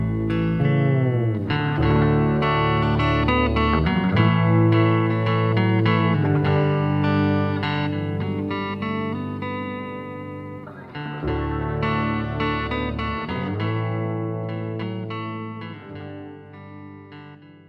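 Heavily effected, distorted electric guitar rings out over a deep, steady bass line, with no drums. The playing is loud and continuous, briefly thinning out for a moment before swelling back in.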